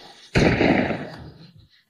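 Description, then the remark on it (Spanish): A single loud gunshot cracks out sharply from a father's bedroom in a house at about 1:30 at night, then its echo rolls off and fades over about a second, with no voices around it. “Hacia la una y media de la madrugada, su hijo de 16 años, Brian, oyó un fuerte disparo procedente del dormitorio de su padre.”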